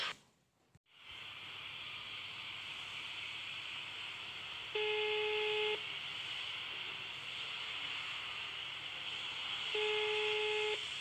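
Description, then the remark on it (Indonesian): A telephone ringback tone sounds twice as a woman calls her relative, each a steady one-second hum spaced several seconds apart, heard over a phone line with a constant hiss and no one speaking. “Jangan macam-macam. Saya telepon ini.”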